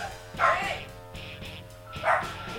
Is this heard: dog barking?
yes